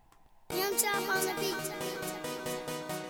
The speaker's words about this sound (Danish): vi skal høre en af er sådan de helt hårde drill-klassikersange, som nok er, er sådan et meget godt udtryk for noget af det.